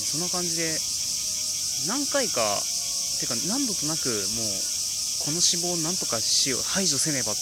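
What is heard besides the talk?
cicadas singing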